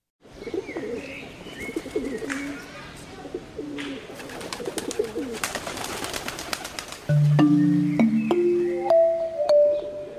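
Pigeons coo in low, burbling phrases, with scattered chirps and fluttery rustling around them; partway through, a rising sequence of steady musical tones comes in over the birds.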